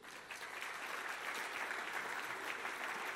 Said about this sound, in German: Lass uns einen großen Applaus geben.